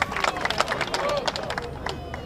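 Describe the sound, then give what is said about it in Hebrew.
A large audience gathered around a stage applauds as a performer is welcomed on. Dense overlapping claps form a continuous bright patter with a few scattered voices mixed in, holding at a moderate level throughout. “קבלו אותו במחיאות כפיים, רבותיי.”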